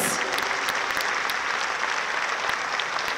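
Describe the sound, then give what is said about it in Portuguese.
A church audience claps steadily for Jesus, a dense, even patter of many hands at a constant loudness throughout, with no voices rising above it. “Bota uma salva de palmas para Jesus.”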